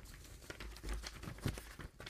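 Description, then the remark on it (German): Paper rustling and crinkling, a quick series of irregular crackly handling noises as several sheets of a 14-page stack are shuffled and flipped, no voices. “14 Seiten Papier.”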